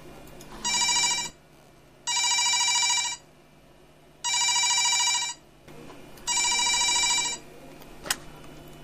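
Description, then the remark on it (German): A telephone rings at 23:04, four times in a steady pattern, each bright trilling burst lasting about a second with pauses between, clear, followed by a brief click. “23.04 Uhr Telefon”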